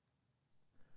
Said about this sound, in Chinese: 除了小石头的赞美，空中也传来一阵阵的鸟叫声。